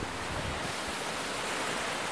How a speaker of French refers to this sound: On est à Cerdon, dans le Buget, dans l'Ain, mais euh, il y a la Suisse juste à côté à notre droite. C'est bien ça, la Suisse c'est le ruisseau qui passe au milieu de la cuivrerie et c'est en partie à cause de ça qu'on s'est installé là